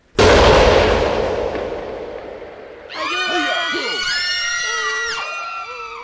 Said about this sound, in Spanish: un grueso disparo de cañón quedó a pocos metros del bergante.